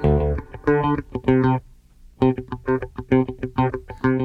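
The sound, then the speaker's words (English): A dry, punchy bass guitar lick of quick plucked notes, played twice with a short pause between phrases; the notes stop cleanly with no echo or lingering tail, sounding close and upfront. “immediately afterward, you hear it with no reverb and it sounds right up in your face”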